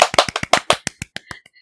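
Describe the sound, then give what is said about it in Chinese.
A short burst of hand clapping, roughly a dozen quick, sharp claps in an uneven rhythm that start loud and gradually fade out, with no voices. “耶！掌声鼓励。”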